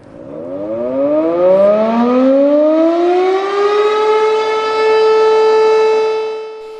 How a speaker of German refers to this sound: Geht sie los, weiß man, da ist etwas passiert. Insgesamt sechs verschiedene Sirenentöne für Friedens- und Kriegszeiten gibt es, jeweils mit unterschiedlicher Bedeutung.